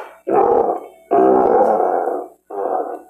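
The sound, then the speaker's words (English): A lion roars three times in quick succession in the MGM studio logo at the start of The Wizard of Oz, each a loud, deep, rasping bellow lasting under a second, with brief silent gaps between them and no talking. “It's like right after the third lion's roar on the MGM thing, and then okay.”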